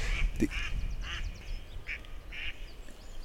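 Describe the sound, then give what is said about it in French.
Several ducks that were in the water quack in a quick series of nasal calls over a low rumble of water or wind, with a splashy burst near the start as they take off after hearing a person's voice. “des, canards qui étaient dans l'eau, mais vraiment euh, sous l'eau quoi. Et qui sont partis en entendant ma voix.”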